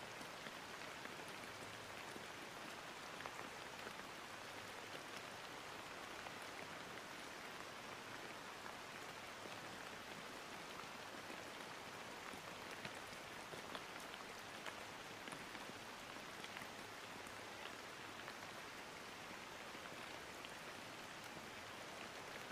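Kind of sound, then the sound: nature, rain falling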